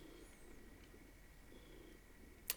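A male cat purrs softly and steadily, a low rumbling drone with a gentle rhythmic pulse, ending with a brief sharp click.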